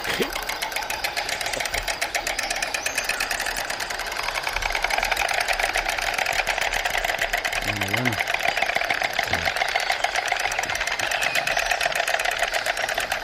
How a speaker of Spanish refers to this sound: Pero lo que quería decir es que este sonido hecho con, con el pico, el crotorar, que de donde viene la palabra, o viene de la palabra lo que es como se llama en Andalucía las castañuelas, por ejemplo, ah. o los crótalos.